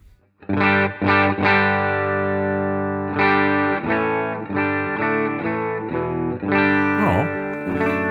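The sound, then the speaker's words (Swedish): A clean electric guitar, a German Telecaster played into a Dream, rings out through an amplifier, strumming a series of sustained chords alone, each struck firmly and left to ring before the next change, with a slight wavering shimmer near the end. “Ett rent ljud.”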